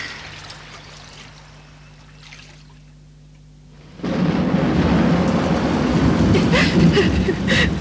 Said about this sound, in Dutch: Heus, lieverd. Dat onweer gaat toch weer voorbij? Nee, niet waar. Het gaat eeuwig zo door.